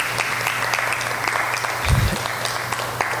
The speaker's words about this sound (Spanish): Denle un aplauso al Rey de Reyes